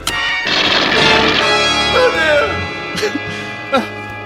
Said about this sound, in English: Myko ends the demonstration with a bang by firing the diabolical machine's laser into a nearby rock